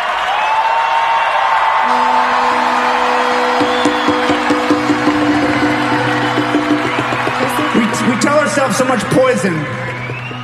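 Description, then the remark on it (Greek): Loud concert crowd applause and cheering, a dense, steady wash of clapping with sustained shouts and whoops rising over it, continuing throughout before thinning slightly at the very end. “Αυτό που ακούσατε σαν κενό και χειροκροτήματα και ακούσατε τι είπε ο άνθρωπος, είναι ότι στην πραγματικότητα ήταν δύο πάρα πολύ δύσκολα χρόνια και για αυτόν και για όλου.”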